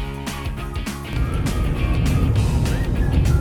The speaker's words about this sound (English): I am driving, so if you hear a little background noise